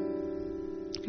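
A single acoustic guitar chord, an A minor 7 shape shifted up two frets and played as a passing chord, rings out steadily, its notes sustaining clearly with no talking, before a fresh strum begins right at the end.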